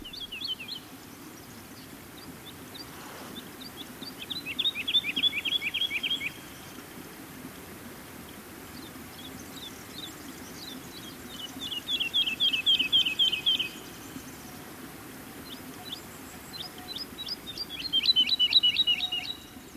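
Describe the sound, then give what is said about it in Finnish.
A woodlark sings outdoors in three bright, fluting phrases, each a rapid run of repeated, slightly falling notes, separated by pauses, over a steady low background hum with faint insects. “Viikon luontoääni: Kangaskiuru”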